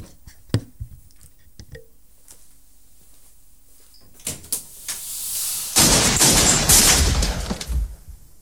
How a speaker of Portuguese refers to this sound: Deixa-me só ir ali então atender a porta